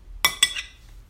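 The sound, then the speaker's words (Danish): Two quick, bright clinks of glass striking glass, followed by a fainter third ring that fades out, as glasses touch together in a toast. “Lad os skål i pesto. Skål.”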